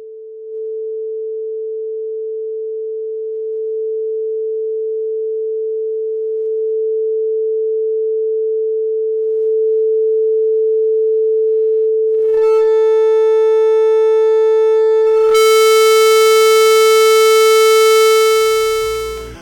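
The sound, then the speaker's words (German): A steady sine test tone holds one pitch throughout, growing slightly louder, then turns harsh and buzzy as distorted overtones pile on near the end before it cuts off. “Audiobeispiel 1 Sinuston”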